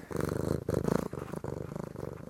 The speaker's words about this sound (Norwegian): Når sola skinner, maler katta i vinduskarmen også når eieren har ferie.